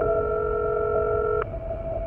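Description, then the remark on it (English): A steady electronic ringback tone hums through a phone line for about a second and a half as a call goes unanswered, cuts off with a faint click, and a quieter line tone lingers afterward. “Even after making three separate calls, no one picked up the phone.”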